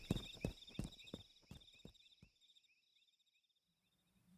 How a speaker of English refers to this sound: stomped his way through the fog shrouded forest, carefully watching for any sign of his charges or for any attackers.